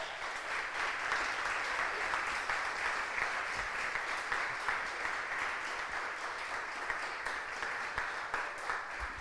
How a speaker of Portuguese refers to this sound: Aplauda ele bem forte.